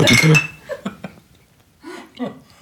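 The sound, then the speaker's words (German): A quick bright clink of glasses as people toast, right at the start and ringing briefly, followed by soft murmuring and small vocal sounds from people. “Müssen wir mal anstoßen, ne?”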